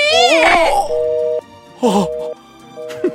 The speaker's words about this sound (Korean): 말만 들었으면 애기가 장난감 때문에 징징거리는 어. 일이 없을 거 아니야.